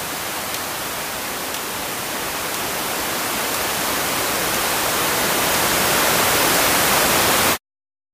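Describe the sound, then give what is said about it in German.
A steady hiss of white noise swells gradually louder, with a few faint clock ticks barely poking through early on before being buried completely, then the sound cuts off abruptly. “dann ist das weiße Rauschen so ein bisschen so etwas wie ein Meeresspiegel, der sich über diese Grashalme drüber legt, die dann nicht mehr zu sehen, beziehungsweise in unserem Fall nicht mehr zu hören sind.”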